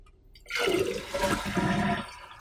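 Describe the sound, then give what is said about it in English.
A toilet is flushed again to check for sediment stuck at the flapper opening, a sudden loud rush of water that swirls and gurgles steadily for about two seconds before starting to drain away. “So I'm going to flush it again, and I'm just gonna try and give it a quick wipe with my finger, you know?”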